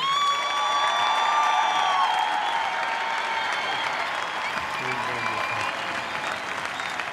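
A large audience at the Marrakech du Rire stands and applauds and cheers steadily for Jamel on his birthday, a dense wash of clapping with whistles and shouts rising over it, sustained throughout.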